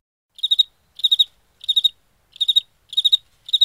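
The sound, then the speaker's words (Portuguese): Crickets chirp in a steady rhythm, each burst made of three or four quick pulses, repeating about every 0.7 seconds. Clear, with no other sounds or voices. “Eu acho que eu ouvi grilos.”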